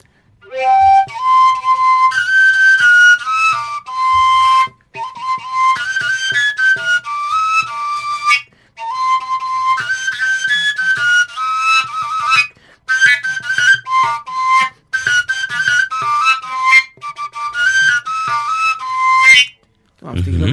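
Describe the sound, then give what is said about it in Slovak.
A koncovka overtone flute pitched around C plays a lively melody in bright, breathy, whistle-like tones, leaping between high notes in short phrases with brief pauses, fairly loud with no talking. “C-čko a C-čková dajme tomu, keď je trošku koncovka. kratšia, no.”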